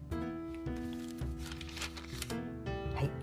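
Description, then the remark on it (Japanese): Several papery rustles and flips of the thin pages of a paper Bible being turned to the Book of Exodus, heard in quick succession over a steady background of sustained musical tones. “それはですね出エジプト記ですね今この聖書紙の聖書をめくっている音がしますが、はい、紙の聖書ってわざわざ言う時代になりましたね面白いんですけど”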